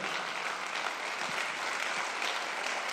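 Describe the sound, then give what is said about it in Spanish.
A large church audience applauds loudly and steadily for God, a dense wash of many hands clapping at once that fills the whole space without pause, with no one speaking over it. “Vamos, si usted lo cree, denle un aplauso fuerte.”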